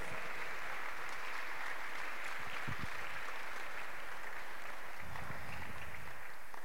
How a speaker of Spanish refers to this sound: Gloria al Señor. Aplaude, por favor.